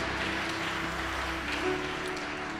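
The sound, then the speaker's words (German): A crowd applauds Jesus as saviour after a prayer, clapping steadily throughout in a dense continuous wash at an even loudness, with a low sustained musical tone humming underneath. “Ja, lass uns diesem Retter Jesus mal einen Applaus geben, der Menschen rettet.”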